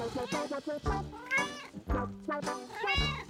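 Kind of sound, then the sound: animal, cat meowing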